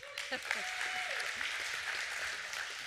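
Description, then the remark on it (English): A church audience applauds steadily during a morning service, a dense wash of clapping with scattered whoops and cheers rising above it, with no one speaking. “I was going to say welcome and get y'all cheered, but y'all are cheering, so that's great.”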